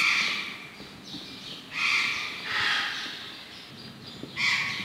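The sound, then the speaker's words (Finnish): A group of Patagonian conures gives harsh, raspy screeches in repeated overlapping bursts, some louder, others trailing off, over a steady background hiss. “Tässä on tota, äänessä nyt enimmäkseen. Meillä on tuommoinen useampi Patagonian aratti tuossa.”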